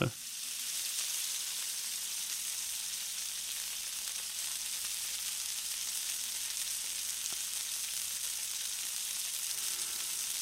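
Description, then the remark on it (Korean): Juicy meat sizzles steadily in a hot pan as it is flipped, a dense, crackling hiss that holds loud for the whole stretch, with faint clinks as the pieces are turned over. “이야 이거 뒤집을 때 이런 소리가 나는 거는요 육즙이 가득한 겁니다.”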